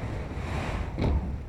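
Cold wind blows through a broken windowpane of a tiny apartment in the 6th arrondissement of Paris on an April evening in 1946, a steady rushing whoosh swelling into one stronger gust near the end before settling back. No voices.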